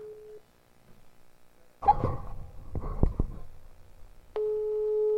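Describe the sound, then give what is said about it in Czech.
A telephone line tone hums steadily, breaks off into a burst of clicks and clatter as a number is dialed for a call from Radio Gecko, then a steady ringing tone resumes and holds to the end. “Tak už to zvoní.”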